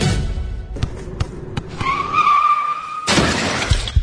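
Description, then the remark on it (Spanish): A car crash sound effect: a few sharp knocks, then a loud, sustained tire screech that ends in a sudden burst of crashing impact and shattering glass. “Hay accidentes que pueden ser muy lamentables.”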